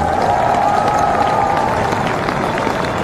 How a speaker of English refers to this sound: Let me give you some hand claps. Let the people cheer for the lady, y'all. She's here in the building.